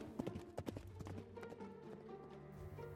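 Horse hooves clatter in a quick, steady rhythm as a rider mounts his brown horse and gallops off. The hoofbeats are loud at first, then keep drumming over a low, sustained background hum.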